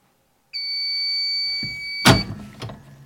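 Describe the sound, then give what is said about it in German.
A single sustained electronic beep from a press in a creative workshop sounds for about a second and a half as its timed cycle finishes, followed by a loud thunk and a clatter as the press is lifted open. “Jetzt piepst es gleich, wenn es fertig ist.”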